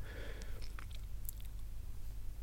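Crunchy chewing of biscuits, with a few sharp bites and crackles over a steady low hum, no talking.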